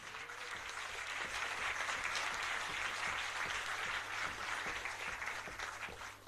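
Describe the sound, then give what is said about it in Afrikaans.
An audience applauds steadily for several seconds to welcome the person chairing the session, a dense, even wash of many hands clapping at once, fairly loud, with no voices rising over it. “Sal u net vir hom hande klap asseblief?”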